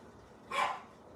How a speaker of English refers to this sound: And my doggy is barking.